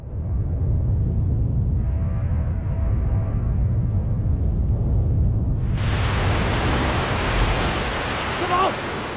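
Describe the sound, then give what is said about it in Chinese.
After an alarm sounds from deep in a river valley, a steady, deep rumble of rushing river water fills the whole clip, then swells about two-thirds through into a loud, hissing roar of oncoming floodwater that continues to the end; a scene in a TV drama. “不过大部队这边也没好多少，河谷深处传来一阵警报声，随后是河水的隆隆声。”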